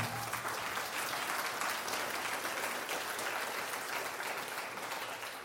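An audience at Palm Vista church applauds its pastors steadily, a dense wash of many hands clapping at an even, sustained level for several seconds, with no voices standing out.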